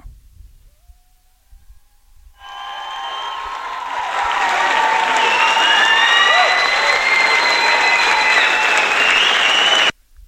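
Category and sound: crowd, crowd applause sound effect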